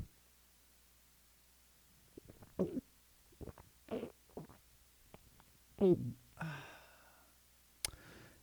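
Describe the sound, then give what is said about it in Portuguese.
Someone drinks sugarcane juice: a few quick gulps and slurps in short bursts, then a breathy, satisfied sigh and a sharp click at the end. “Que delícia esse caldo de cana.”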